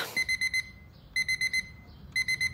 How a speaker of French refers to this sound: Encore un de ces matins où j'entends pas mon réveil.